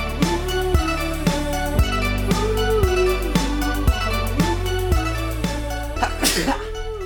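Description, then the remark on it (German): A single sharp sneeze bursts out near the end, loud, cutting over a steady background of mellow instrumental music. “Dass man am Anfang einer Loser-Podcast-Folge erstmal mit einem Nieser beginnt.”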